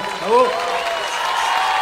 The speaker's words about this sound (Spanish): Y ahora los vi y no dudo, un aplauso grande, no saben el esfuerzo.